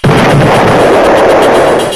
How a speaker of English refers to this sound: Marvel at the pyrotechnic display as in quick succession each embedded explosion packet ignites and burns for up to 5 to 7 seconds.